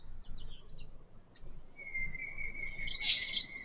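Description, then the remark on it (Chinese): A bird sings: a few faint, high chirps at first, then a long steady whistle leading into a loud, bright burst of trills near the end, over a soft low rumble. “我们知道鸟儿都会叫，但鸣叫却为雄鸟所独有。”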